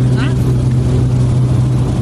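A small aircraft engine drones loud as it powers up for a go-around during a landing in the Okavango Delta, after a car on the ground below flashed its headlights; a steady, unbroken roar holding at full strength for the whole two seconds.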